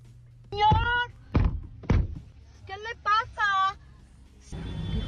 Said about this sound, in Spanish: Bueno, el hombre aparentemente se molestó por algún percance vial y dio tres puñetazos a la ventanilla